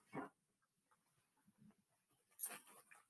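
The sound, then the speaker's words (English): A dog crunches on hard biscuits, with a sharp bite at the start, a quiet pause of small chewing sounds, then a louder cluster of crunches near the end. “So we've got our first reading, the accompaniment of some chomping of some biscuits the dog.”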